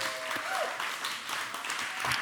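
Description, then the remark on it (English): A crowd applauds steadily, many hands clapping in a dense, even wash of sound that holds at a fairly constant level throughout, with a faint tone briefly audible early on. “So, he gets double claps from you guys.”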